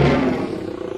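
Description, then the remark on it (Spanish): A lion's deep, rumbling roar, loud, heard alone as one brief burst that starts strong and slowly tapers off. “El rugido de león.”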